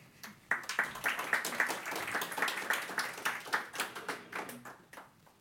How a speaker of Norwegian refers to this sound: Gi dem en varm applaus.